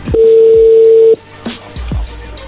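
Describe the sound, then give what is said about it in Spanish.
A steady electronic phone tone holds for about a second, then cuts off, followed by a few short beeps and clicks as a call connects. “A ver, ya entró la llamada, contéstale.”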